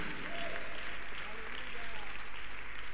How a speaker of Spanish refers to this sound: ¿Cuántos alaban al Señor? Un aplauso grande para el Señor, amén, no para el predicador, no para el pastor, no para el expositor, sino para el Dios de la palabra.